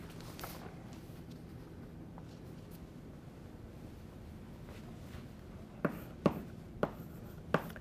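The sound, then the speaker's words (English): Handwriting with a low, steady hum: after several seconds of near silence, a handful of short, scratchy pen strokes tap and scrape, spaced irregularly, as a lecturer writes down a reference to a 2008 Science paper. “you can look at your sheet of paper while I, I just want to write down the, the reference in case anybody wants to look this more.”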